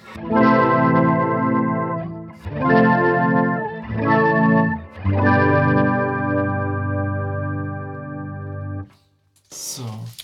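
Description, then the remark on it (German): Sustained guitar chords played through a Boss Overtone octave-overtone modulation effect, four strummed phrases with shimmering added octaves and a chorus-like wobble, loud, ending in a brief bright noise burst. “So, und dann haben wir als letztes noch den Overtone. Genau, den gab es auch als eigenes Pedal vom Boss, glaube ich, ne?”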